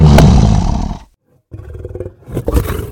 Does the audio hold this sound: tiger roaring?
yes